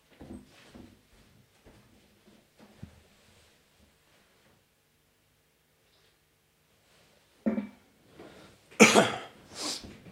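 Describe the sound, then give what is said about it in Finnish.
Faint rustling and small movements, then several loud, harsh bursts of nose-blowing near the end, each a forceful airy honk. “Mä otan vähän kahvia ja niistän ja jatkan sitten.”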